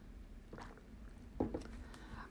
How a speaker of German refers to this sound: Apropos dehydriert, erstmal einen Schluck Wasser trinken.